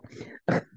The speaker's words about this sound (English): If you can hear the barking in the background, friends listening, that is uh, our puppy Cedar, and it's been a really hard day on her.